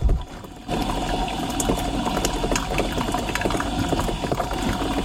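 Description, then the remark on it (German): A coffee machine running steadily after being descaled, after a brief quieter start, with a continuous pump-like hum and a bubbly, trickling gurgle of liquid flowing, dense and unbroken throughout. “So, jetzt plätschert die Kaffeequelle wieder sauber und es ist kein Stöhnen und Röcheln mehr zu hören.”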